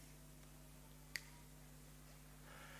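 A single crisp finger snap cracks out once, sharp, against a steady low electrical hum with no talking, as a person snaps their fingers to make a Bible verse change in a trick for children.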